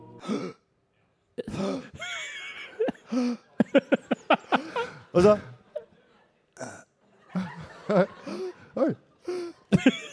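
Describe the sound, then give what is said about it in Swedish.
A voice imitates the short, shallow breaths of a dying person breathing only with the upper chest: a quick, evenly paced run of about six sharp little inhalations, fairly loud, with people talking before and after. “Den döende drar endast små korta andetag och andas bara med övre delen av bröstkorgen.”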